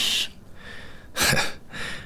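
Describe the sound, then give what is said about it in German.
Loud snoring from someone in bed pretending to sleep: three rough, breathy snores in a row, the middle one the heaviest and loudest, with no talking. “Seit wann schnarcht sie denn so laut?”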